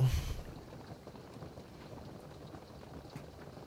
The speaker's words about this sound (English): That rain. It's been raining all night. And all day thus far. It's kind of soothing though. It's nothing like sleeping to the rain.